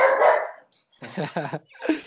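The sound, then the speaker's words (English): A single loud dog bark rings out, then after a short pause a person laughs and talks. “There's a dog there.”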